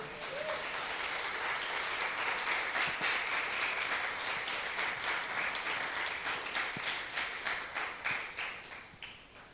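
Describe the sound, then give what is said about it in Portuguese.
A crowd applauds the Lord steadily for several seconds, a dense wash of many hands clapping that holds its level, then thins toward the end into fewer, more separate claps. “Eu quero aplauso ao Senhor.”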